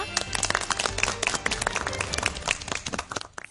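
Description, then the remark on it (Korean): A studio audience breaks into applause to start a lecture on dementia: a dense patter of many hands clapping that holds steady for a few seconds before thinning out and fading at the end. “그럼 박수로 본격적인 강연 시작하겠습니다.”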